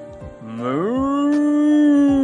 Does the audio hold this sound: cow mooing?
yes